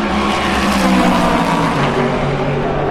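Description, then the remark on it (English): Loud, continuous roar of racing engines, layered harmonic drone with reverberant echo off structures, as cars sweep past on the start-finish straight of a circuit, heard from the terraces opposite the Audi pit box; no voices. “probably recognise from the sound of the cars where we are at the moment. Listen to the reverb.”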